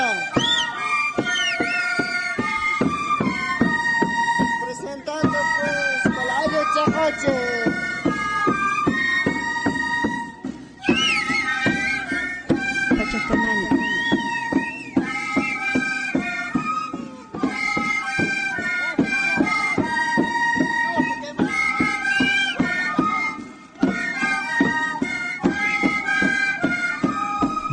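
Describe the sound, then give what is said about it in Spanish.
A steady traditional folk music recording from Yura, in the department of Potosí, a theme played by one of the local communities, with bright melodic lines over a rhythmic, pulsing accompaniment, played loud and continuous with brief pauses between phrases and no voices. “Es el tema de, del Ayuchecochi en Yura. Una música de Yura.”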